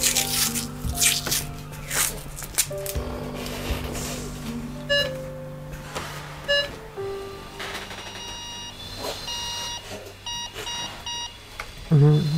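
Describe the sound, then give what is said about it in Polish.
Electronic beeps of a pulse oximeter sound in a steady, repeating rhythm, woven into a layered musical piece built on the rhythm set by a respirator and pulse oximeter, with sustained tones and scattered percussive clicks. “Po raz kolejny słyszymy utwór, który powstał na bazie rytmu wyznaczanego przez respirator, przez pulsoksymetr.”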